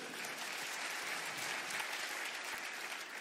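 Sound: audience applauding loudly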